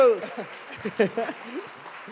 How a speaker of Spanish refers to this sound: Un, aplauso